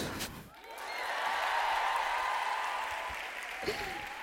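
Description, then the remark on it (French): A burst of audience applause, dense and steady for about three seconds before tapering off, with a brief voice breaking in near the end. “Moi, je me suis trouvée tolérante envers moi-même, donc je m'auto-applaudis, bravo.”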